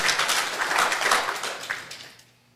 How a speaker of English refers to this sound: Three people clapping, and they write. And they write.